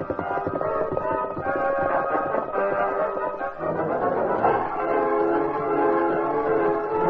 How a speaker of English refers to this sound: heard the sounds of the train climbing Backbreak Hill.